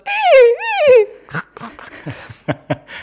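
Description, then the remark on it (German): A voice imitates the whinny of a battery-powered toy horse that starts neighing in a drawer when its sensitive head is bumped: a loud, wavering high-pitched neigh lasting about a second, followed by scattered short clicks and faint vocal sounds. “auch noch dabei so wiehert”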